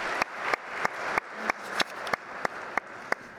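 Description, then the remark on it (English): An audience at the 2019 Reverend Dr. Martin Luther King Jr. birthday celebration in Milwaukee claps, a dense, steady wash of applause with sharp, louder claps standing out at a regular beat about three times per second. No one speaks. “My co- mc yes, you can go ahead and clap.”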